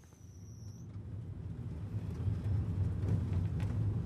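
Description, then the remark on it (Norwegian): A car engine rumbles low and steady, growing gradually louder as the vehicle approaches and pulls into a farmyard at night, with no one speaking. “svinger bilen inn på gårdsplassen til 58 år gamle”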